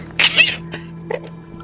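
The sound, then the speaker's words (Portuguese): A voice imitates a rusty gate in a hospital creaking open: one short, strained, squealing groan that rises and fades, followed by a few faint clicks and rustles. “o portão enferrujado, ele faz um ruído que ecoa pelo hospital inteiro.”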